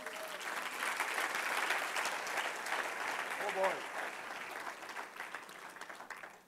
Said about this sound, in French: Est-ce qu'on peut applaudir tous nos serviteurs de l'ombre?